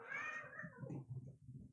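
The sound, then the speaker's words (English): A cat that just ran by lets out a single drawn-out meow that slides downward in pitch, fairly loud, with no voices over it. “a, cat, a cat just ran by me.”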